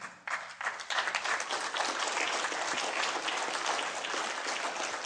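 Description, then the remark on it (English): A church audience bursts into sustained applause, dense overlapping clapping that starts abruptly and holds steady at a strong level throughout. “Can we give God a hand for this one?”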